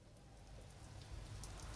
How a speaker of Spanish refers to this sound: Llovía, una tormenta terrible.